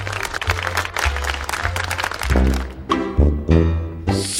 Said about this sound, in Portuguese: Primeiramente eu quero palmas para mim, por favor, pessoal.